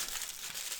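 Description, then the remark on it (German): Steady crinkling of aluminum foil, a dense crackly rustle that stays at an even level for under a second with no voices. “Die Alufolie gibt es ein bisschen, aber ich glaube, das geht.”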